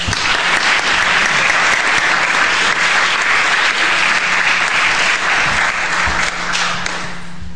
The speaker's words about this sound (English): don't applaud too much uh, because I'm not sure that I will be very good because I was told I'm on the record.